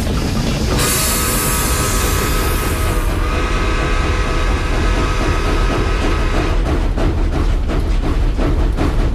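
A train rumbles steadily along the rails with dense low-frequency roar, a high screeching whine in the first few seconds, then rhythmic clacking of wheels over track joints toward the end. No one speaks.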